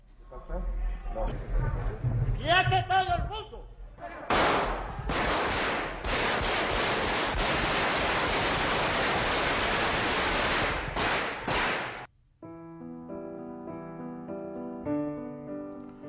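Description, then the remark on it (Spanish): A man shouts, then a long, loud volley of rapid automatic gunfire, fired toward the ceiling of the Spanish Congress of Deputies by Civil Guards led by Antonio Tejero, crackles for several seconds in dense bursts before cutting off to a quieter, steady tonal hum. “Después de la ráfaga de disparos, todos los diputados se escondieron bajo su escaño”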